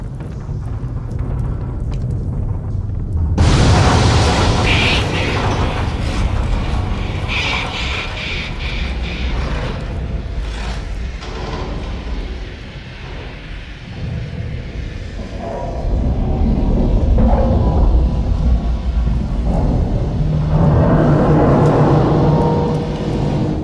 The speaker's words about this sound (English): There's one more drop if we could listen to it, which is the kind of sound of the, the building itself groaning under the weight of the water as it's starting to break its way in. Can we drop that?